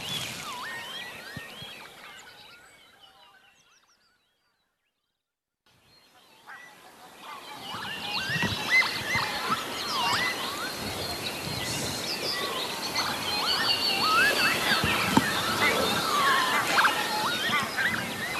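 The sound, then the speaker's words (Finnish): A dense spring bird chorus over flooded fields at Lake Hyvelejärvi in Lohja, Finland, around half past eight in the morning: overlapping calls and honking, quacking waterfowl fade to near silence for a few seconds, then return louder and busier, a continuous chirping, calling wall of sound. “Nyt on kevät ja ainakin yksi kevätaamu kannattaa valvoa lintujen konserttia kuunnellen.”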